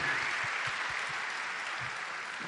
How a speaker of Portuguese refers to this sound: A gente começa louvando a instrumentalidade da banda do Radical, nossos jovens e adolescentes, né? Não foi lindo? Eles merecem um aplauso, não merecem? Para a glória de Deus.